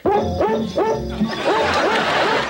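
Dog barks pitched into a melody, a quick run of bouncy woofs following the Jingle Bells tune over a steady musical backing, loud and close.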